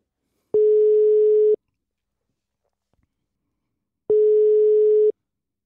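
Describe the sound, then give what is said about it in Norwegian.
Two long, steady telephone ringback tones, each about a second, separated by a few seconds of silence, heard clearly as a phone call is placed, with no talking. “La oss ringe.”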